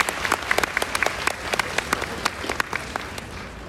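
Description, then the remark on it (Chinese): An audience in Taiwan applauds steadily, a dense patter of many hands clapping with sharper individual claps popping through the wash, fairly loud throughout with no voices over it. “台湾的家人们，真的很感恩今天来到这里，请借大家的双手，来用最热烈的掌声给我送给我们自己，好不好？”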